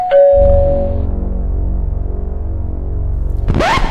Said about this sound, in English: The doorbell rang again.